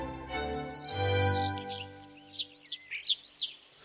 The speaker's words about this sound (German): auf einem Ast vor dem Fenster saß er, Mozarts Star, und zwitscherte ihnen fröhlich zu.